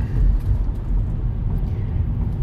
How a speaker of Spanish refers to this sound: eh, perdonad, pero es que había un coche que me salía y, es que me da pánico.